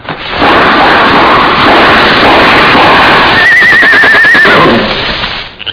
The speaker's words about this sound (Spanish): Oigan, un caballo, ahí viene. Ahí viene.